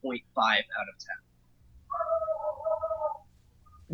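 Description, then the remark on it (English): A dog lets out a drawn-out, wavering whine lasting about a second, heard just after a short burst of speech, moderately loud against quiet surroundings. “Did you hear my dog in the background?”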